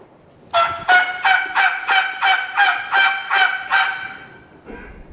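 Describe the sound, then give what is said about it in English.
A latex mouth call imitating a turkey, run with the tongue held all the way flat: a run of about nine raspy, evenly spaced yelps, loud, trailing off with one fainter short note. No one talks. “I got my tongue middle ways, and a lot of guys run it with their tongue all the way flat, all the way out.”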